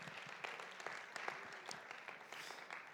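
An audience applauds steadily, a dense wash of many hands clapping at an even level for the full three seconds, with sharper individual claps popping out of the crowd noise.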